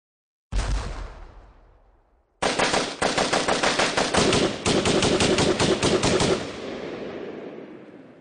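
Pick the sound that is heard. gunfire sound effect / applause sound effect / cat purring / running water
gunfire sound effect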